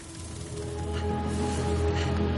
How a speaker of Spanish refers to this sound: Unas hojas se mecen por el viento.